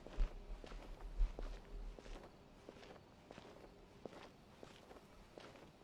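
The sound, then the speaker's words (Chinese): A video game character walks through Fontaine near a sculpture with a notice board: a steady series of light footsteps at an even pace, each step a soft, crisp tap, with a couple of heavier thumps early on and no voices. “OK，那我们再在这边走一走啊，突然发现这边这个雕塑旁边啊也有一个告示牌儿。”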